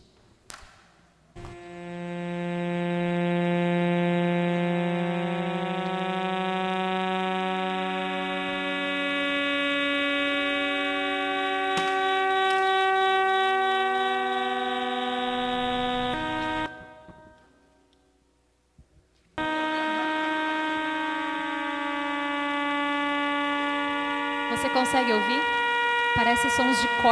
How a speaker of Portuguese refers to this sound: E foi capturado o som das estrelas, dessas estrelas que são chamadas de pulsar de vela. De 16 estrelas dessas foram capturados os sons dessa constelação. E eu quero que você também escute.